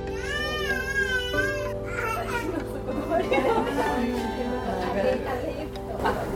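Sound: baby crying and babbling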